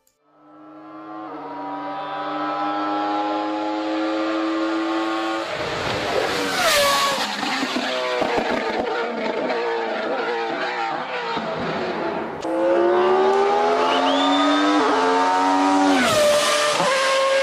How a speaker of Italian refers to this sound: Parte dal basso ed evolve, evolve fino a 12.000 giri, come se diversi motori suonassero contemporaneamente uno dentro l'altro. È difficile da spiegare, bisogna sentirlo.